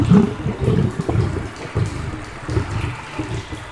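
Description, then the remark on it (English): Water flows steadily in an underground chamber beneath a temple, a continuous low, rushing gurgle with small surges and swells, moderately loud, with no voices over it. “This is a place of ancient water.”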